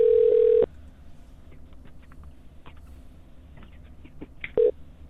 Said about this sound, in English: You'll hear. The phone's gonna ring, and we're gonna be on speakerphone.